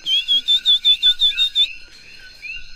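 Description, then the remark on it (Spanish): A coquí melodioso frog calls in the distance with a quick run of about nine high, whistle-like notes, followed by softer, sliding chirps. There is no talking. “De hecho, en la, lejanía estamos escuchando un poquito de eh, coquí melodioso.”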